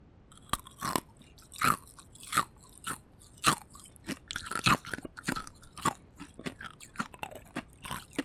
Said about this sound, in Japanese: なんでこんなにうまいんだろう氷暑いからじゃないなのかねと言っても毎日家族みんなで食べてるってのは氷をガリガリ食べ続けるのって貧血なんじゃないかって聞くよね